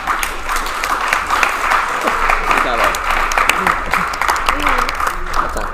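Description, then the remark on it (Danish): Steady applause from a sizable audience for a panel at the end of a live event, dense clapping sustained throughout with some voices audible underneath. “Tusind, tusind tak for jeres deltagelse, og giv lige panelet en kæmpe hånd.”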